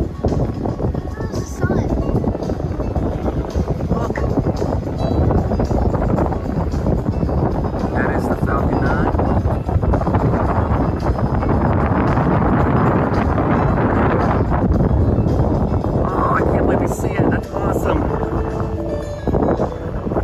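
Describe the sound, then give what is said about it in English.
Steady, loud wind buffeting a microphone throughout at a Disney theme park, a constant low rumbling roar with gusty fluctuations, theme park music playing in the background and voices faintly audible beneath the noise. “Besides it being a little windy, you can hear like the theme park music playing in the background.”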